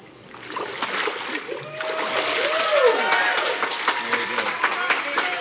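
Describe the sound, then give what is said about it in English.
Immersion baptism: a burst of splashing water as a person is plunged under and brought back up, the churning lasting several seconds, with a crowd of friends and family rising and cheering over it. “And based on it now, I'll baptize you in the name of the Father, the Son, and the Holy Spirit.”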